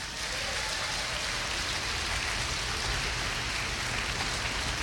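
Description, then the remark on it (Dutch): A steady wash of applause, many hands clapping at once into a dense, even crackle that holds at the same loudness throughout, with no voices heard over it. The applause is for the people sitting at the back who supply the speakers' texts. “Laten de mensen die daar achter zitten en ons altijd die teksten geven, soms laat, soms op tijd, een applaus geven.”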